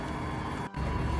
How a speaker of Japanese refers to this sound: 実は今日車の中か車の中で音声を収録してまして聞き苦しい点があったかと思いますが申し訳ありません